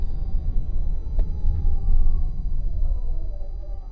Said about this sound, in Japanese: パトカーがと譲りましたはいっていうところでパトカーが割り込んできたんで、えー、終わりたいとなんかどっか事件みたいですね